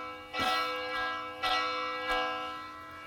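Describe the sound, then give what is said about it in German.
A bell sound from a smartphone app that offers several bells to choose from is struck three times at uneven intervals, each strike ringing out with rich, sustained overtones that linger and overlap. It is moderately loud, with no talking. “Du kannst also, hast am Anfang mehrere Glocken zur Auswahl.”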